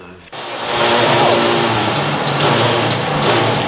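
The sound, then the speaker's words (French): A bank of 19th-century sewing machines in a museum in Argenton-sur-Creuse, Indre, France, all driven by one motor and a central shaft, starts up abruptly and keeps running, filling the space with a loud, steady mechanical whir and fine rattling clatter, continuous. “Je vais vous mettre le banc de machine en route.”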